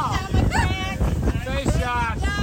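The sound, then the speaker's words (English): A 25-foot boat on a fly fishing trip thumps over choppy waves amid loud wind and rushing water, while voices exclaim over the steady roar. “We all try our best to get to know one another on the 25 foot boat.”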